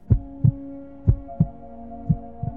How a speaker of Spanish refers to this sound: Por fin, entre las llamas vio algo más oscuro. Era el corazón del gigante que seguía latiendo.